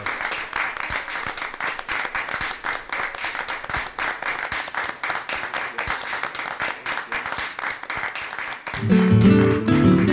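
Sustained audience applause, a dense wash of many hands clapping at a steady, loud level, ending as a tonal musical passage comes in over the final second.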